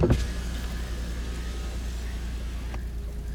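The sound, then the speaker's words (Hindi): A car's power window whirs steadily downward over a low engine idle, ending with a soft clunk as the glass stops near the end; the car has stopped at night in a dense forest. “अपनी कार उस बूढ़े के नज़दीक लाकर रोक दी और अपनी कार का शीशा नीचे खोलकर उनकी ओर देखकर कहा”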